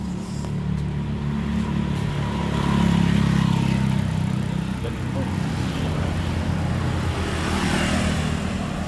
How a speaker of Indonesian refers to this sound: maaf yang lagi dengar uh, banyak suara motor